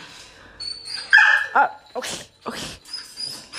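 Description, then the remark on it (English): A Doberman lets out high, thin whimpers, then a few short barks, while a person murmurs a couple of brief words. “And right there, that was my dog. His name is Mac. He's a Dobie.”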